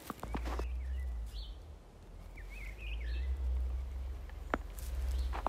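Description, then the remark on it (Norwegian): Faint birdsong chirps and warbles outdoors on Valderøya, scattered short phrases over a steady low rumble of wind or traffic, with a few soft knocks or footsteps. “Hører dere fuglene synge?”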